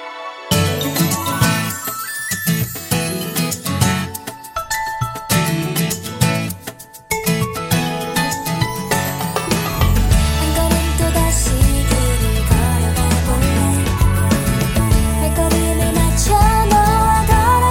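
A pop song plays on a radio show, loud and upfront, opening with bright chiming synth notes and rhythmic hits, then a full beat and bass kick in around ten seconds, carrying steadily with no talking over it.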